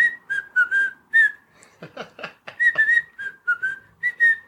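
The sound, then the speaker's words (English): A person whistles a bouncy, jaunty tune from an old film in short rising and falling phrases, clear, broken midway by a brief stretch of breathy, noisy sounds before the melody resumes. “For me, just that the song, the whistle song, which I can't whistle very well, but um, I don't know if any of you are going to indulge me.”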